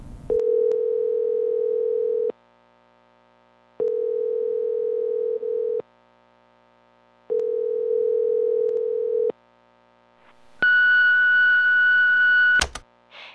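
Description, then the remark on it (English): A phone line rings three times, each long, steady electronic buzz separated by brief silences, then a brighter, higher-pitched tone sounds as the call connects to voicemail. No one speaks. “Then on January 1st, I received a phone call.”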